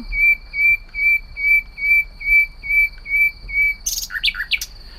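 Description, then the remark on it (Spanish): A common nightingale sings about two metres away: a run of about nine evenly spaced, pure whistled notes, then a quick burst of richer, warbling phrases at the end, with no voices. “Así que vamos a escuchar en primer término a un ruiseñor común, a protagonista aquí cerca.”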